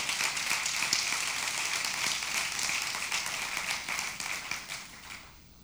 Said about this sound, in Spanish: ¿qué tal si le damos un fuerte aplauso? Gracias a Dios por eso.